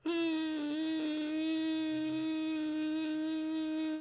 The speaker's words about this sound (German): Deshalb wollte sie jetzt erstmal eine Runde schlafen, da wurde aber nichts draus, denn erst kam eine Mücke vorbeigeflogen.